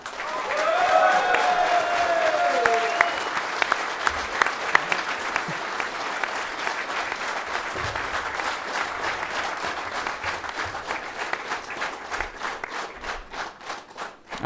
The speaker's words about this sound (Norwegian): Han har flere år eh, bak seg i, eller hos søndagens motstander fra Trondheim, så da må det vel være på plass å gi han en skikkelig varm applaus, dere.